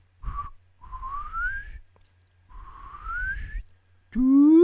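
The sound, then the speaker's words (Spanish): A person whistles to imitate a lagoon monster crying out for oxygen, with breathy, whistle-like tones: a short note, then two long rising glides, close to the mic, ending in a louder, rougher voiced sweep. “Para que voy a chiflar más cerca del micrófono para que tenga el efecto deseado.”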